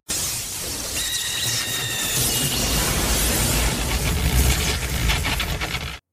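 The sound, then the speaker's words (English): The sound effect of an iconic lightning attack: a dense, loud electric crackling roars continuously for about six seconds, with high, shrill screaming, chirping bird-like tones layered over the first half. “Uh, I mean, even even uh, the Chidori, which is probably like the most the iconic lightning. one with the lightning, uh, and, like the ah. screaming bird sounds.”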